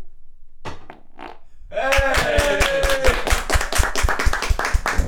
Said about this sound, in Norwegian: jeg, bare, jeg bare klapper for å få det vekk igjen.